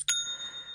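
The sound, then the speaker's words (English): A single bright Shopify sale notification chime, like a cash-register ding, strikes once and rings on with a clear metallic shimmer that slowly fades, heard alone with no voices. “If you run a small business, that sound you just heard is the best kind of notification – that's the sound of another sale”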